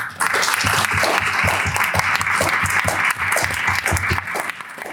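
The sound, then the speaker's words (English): An audience at a discussion event in Brussels claps steadily in appreciation of the speakers, dense overlapping hand claps forming a continuous wash of applause that holds strong for several seconds before tapering slightly at the end. “And if you could help me um, show our appreciation the normal way.”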